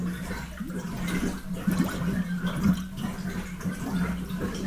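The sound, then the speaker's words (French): Continuous soft bubbling and gurgling of grape juice fermenting in wooden barrels in a wine cellar, fizzing over a steady low hum, even in level with no voices. “Les tonneaux se mettent à chanter, les bulles de la fermentation.”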